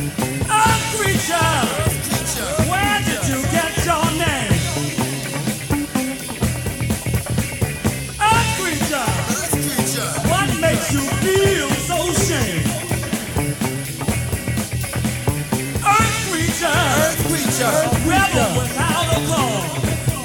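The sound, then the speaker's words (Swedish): A 1974 song recording plays steadily and fairly loud for the whole stretch, a full band with a sung vocal line weaving over dense instrumental backing. “en av de grejerna som jag hittade är eh, … med … från, håll i er nu, 1974”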